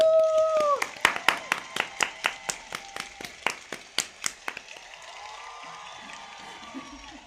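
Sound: applause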